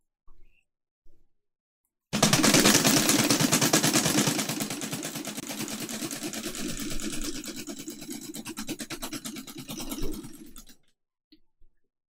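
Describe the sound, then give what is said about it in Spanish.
A thunderous blast of the camareta, a wooden box that resounds in place of church bells for the Catholic Mojeño community: a loud, dense volley of rapid cracking bursts over a deep rumble, rattling on for about eight seconds before cutting off abruptly. No one speaks. “Este breve fragmento de paisaje sonoro cierra con este estrondoso sonido de la camareta.”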